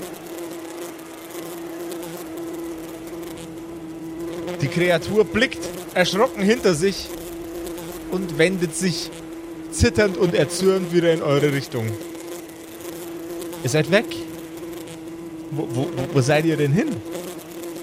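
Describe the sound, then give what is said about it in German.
A steady, low-pitched buzzing whir of a flying creature drones on throughout, continuous and even, while a man speaks over it in short bursts. “Das Surren wird immer leiser und leiser.”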